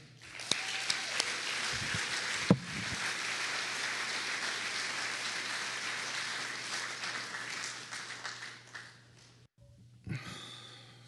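A crowd applauds steadily, a dense wash of many hands clapping that holds for about nine seconds before cutting off, followed by a brief faint rustle. A low steady hum runs underneath.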